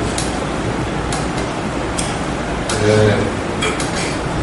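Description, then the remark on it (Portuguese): A chair scrapes briefly across a hard floor with a short squeaky drag as the speaker moves their chair to the middle during a lecture, surrounded by scattered knocks and clicks and general noise, with a voice briefly heard. “Então eu vou colocar minha cadeira no meio.”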